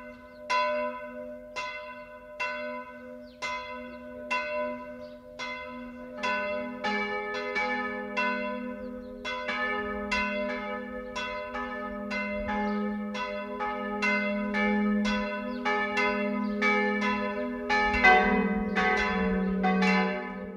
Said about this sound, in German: Das Geläut vom Martinsmünster Fischbachau ist nur eines von Tausenden im Archiv des Bayerischen Rundfunks.